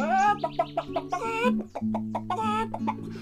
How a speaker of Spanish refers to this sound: Y la gallita.